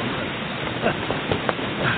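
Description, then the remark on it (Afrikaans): Steady rushing noise of rain driven by a strong south wind in a storm, loud and continuous throughout, with a few brief gusts or spatters rising above the wash and faint voices underneath. “Maar nie in so 'n stormwind nie.”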